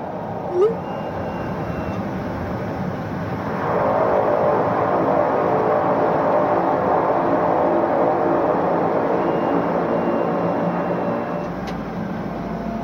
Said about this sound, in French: Mon avion s'est enfin posé sans encombre à même la terre poussiéreuse de l'aérodrome de Nerlerit Inat, aussi appelé Constable Point, sur la côte est du Groenland.